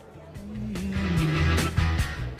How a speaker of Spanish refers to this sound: Auto número 2425, marca Renault, del señor Valle y Ordóñez. Arranque normal, exactamente igual que con benzina.